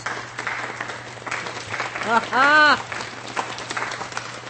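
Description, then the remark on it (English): A few seconds of steady audience clapping for the few who got a quiz answer right, a dense crackle of many hands running throughout, with a brief rising-and-falling vocal cheer breaking through midway. “only a few of you got it, so you just get a few claps for that one.”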